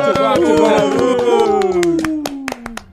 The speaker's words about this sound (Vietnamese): trưởng đoàn nhá mọi người nhá vỗ tay thêm kìa.